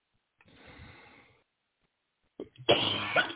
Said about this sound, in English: Excuse me. Again still coughing.